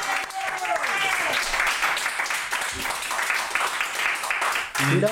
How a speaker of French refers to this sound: vous pouvez encore l'applaudir parce qu'il était en live ce soir.